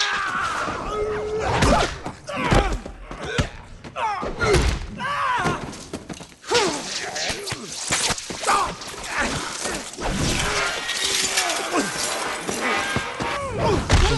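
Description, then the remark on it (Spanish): Loud metallic clangs and heavy impacts crash repeatedly over about fourteen seconds, with shattering debris and dense, chaotic rumbling filling the scene between the strikes. “metal sonando.”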